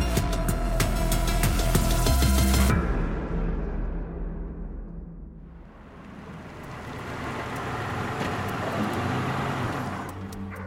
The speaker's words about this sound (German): parkt ihr Auto in der Einfahrt ihres Hauses in einem Vorort von Houston.